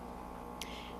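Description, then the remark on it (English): A steady low mechanical hum from an espresso machine runs throughout, broken by a short hissing burst of released steam partway through that trails off into a softer lingering whine as the machine shuts down. “That's my espresso machine shutting down, and I'm not sophisticated enough of a podcaster to know how to edit that out.”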